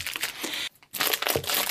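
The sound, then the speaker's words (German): Loud paper crinkling and rustling as cheese packaging, a wooden box with a paper base, is opened, continuous crackling with a brief pause in the middle before the crinkling resumes. “Ich mache das hier mal so auf, während ich dabei erzähle.”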